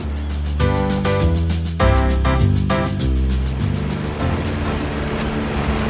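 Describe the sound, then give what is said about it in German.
A motorboat engine roars to life and revs up in steady surges, its loud droning hum carrying over splashing water as the boat pulls away, setting out to measure water temperature at various spots. “Ich habe eins an Bord. Springt rein, wir fahren direkt los.”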